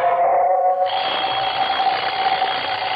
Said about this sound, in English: Coming awake, I heard the alarm we'd set go off.